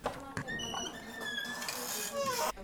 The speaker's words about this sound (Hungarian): A gyertyák csonkig égtek a szobában. Az ajtó lassan kinyílik.